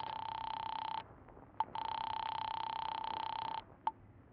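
A telephone being dialed and connecting in a drugstore phone booth: two long, steady buzzing tones, each followed by a brief sharp click, clear with no voices.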